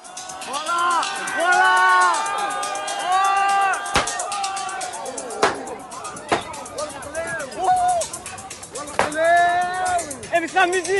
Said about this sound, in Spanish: lo que se escucha es un vídeo del tiroteo que tuvo lugar en una discoteca de Marbella el 18 de julio. Además de gritos y disparos, se oye hablar en distintos idiomas a los jóvenes que presenciaron la escena.